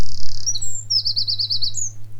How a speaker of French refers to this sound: des oiseaux tout autour. Les goélands font, pas, font vraiment pas beaucoup de bruit, ils volent euh, tranquillement, à ras du sol.